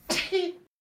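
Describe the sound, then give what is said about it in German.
A single sneeze: a sharp, breathy burst followed by a short voiced tail, over within about half a second, then silence. “Gesundheit.”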